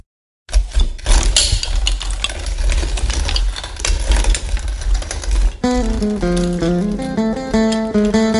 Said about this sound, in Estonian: konn teeb meie õuel häält.